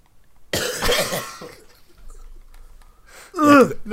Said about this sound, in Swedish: Jag spyr nästan. Alltså seriöst, jag gör det.